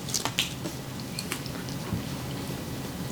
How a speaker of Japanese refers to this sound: ピザめっちゃうまいうん久しぶりに食べたピザ